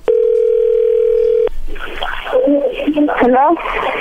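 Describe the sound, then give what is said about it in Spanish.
A steady, unbroken telephone tone hums for about a second and a half as a call is placed, then cuts off and a voice begins talking over a faint line hiss. “Bien, ahora vamos a marcarle a ver si te manda los chocolates a ti o se los manda alguien más, ¿ok?”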